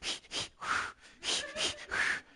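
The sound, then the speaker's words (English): A person imitates rhythmic labor breathing, a quick run of five or six sharp, breathy puffs in a steady pattern, fairly loud with no other sounds. “she was already probably doing the breathing, right?”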